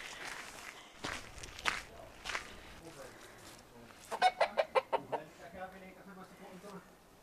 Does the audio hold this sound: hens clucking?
yes